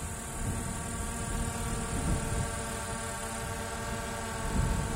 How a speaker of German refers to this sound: Wir lassen die Drohnen über Gebiete fliegen, wo die sogenannten Sicherheitshäuser der Drogenkartelle liegen.